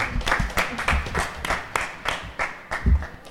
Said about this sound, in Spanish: Gracias a todos y un aplauso para todos vosotros.